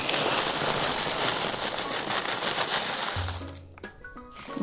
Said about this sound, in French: on reconnaît le bruit des graines de courge. Ça, ça donne toujours un petit côté un petit peu creux comme ça. Et hop, je les mets sur la plaque, moitié-moitié.